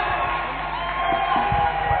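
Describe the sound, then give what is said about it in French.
An audience at a morning worship service cheers and shouts joyfully in acclamation of the Lord, a dense wash of many voices with scattered whoops rising above it, steady and fairly loud throughout the short stretch. “Pour ces cris de joie joie, tu à clamer. Acclame le Seigneur.”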